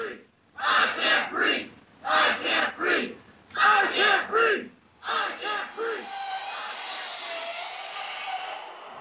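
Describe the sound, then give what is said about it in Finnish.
A large crowd at a protest march chants in unison, repeating a short rhythmic phrase of several syllables four times, loud, before the chant dissolves into a broad roar and hiss of crowd noise. “vaikka joukkokokoontumiset ovat edelleen kiellettyjä, se ei näy valtavissa protestikulkuissa.”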